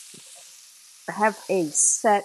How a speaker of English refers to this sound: you hear that sizzling? That's the sound of Italian sausage browning in a big cast iron skillet.